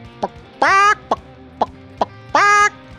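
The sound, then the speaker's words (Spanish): A voice imitates a clucking hen, alternating short sharp clucks with two longer drawn-out squawking calls in a rhythmic pattern, clear with no other talk. “Mira, mi corazón siento que puedo hacer como gallina, así de”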